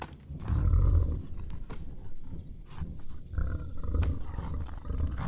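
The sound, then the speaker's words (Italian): Deep, heavy animal breathing swells into low, rumbling roars from a large beast, repeating in slow surges with no voices present. “Doveva essere un animale, magari c'erano dei tori in qualche recinto, ma io non vedevo nulla.”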